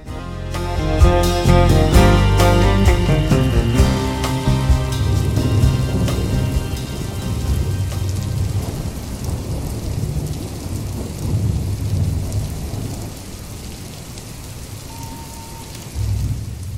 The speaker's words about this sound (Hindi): तीन दिन हुई हुआ ऐसा पानी बरस रहा है लगता है इंद्रदेव अपना प्रकोप दिखाकर ही माने देखो तो जरा कैसा लगातार पानी बरसे जा रहा है जहाँ देखो तहाँ जले जल दिखाई दे रहा है